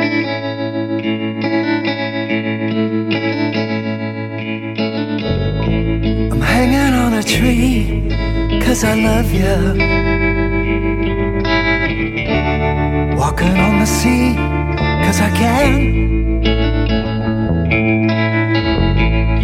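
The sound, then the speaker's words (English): A heavy metal song played on a Hofner Beatle bass, with loud distorted guitars and a steady low bass line under a male singer; the full band keeps a driving, sustained wall of sound throughout. “I'm thinking this might be the first heavy metal band that actually recorded an entire song Hofner. with a Hofner Beatle bass.”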